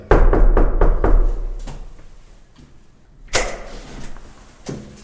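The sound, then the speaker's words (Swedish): Quick run of about six firm knocks on an apartment front door, fading into a pause, then two louder, separate thumps follow a few seconds apart. Nobody speaks. Firefighters from the fire brigade in Tyresö, Sweden, knock on a fine Sunday afternoon to talk about fire safety. “Nej, vi hör röster inuti i alla fall så vi får väl knacka på en gång till och se.”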